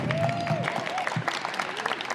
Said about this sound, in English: Big round of applause for Ida Nilsson.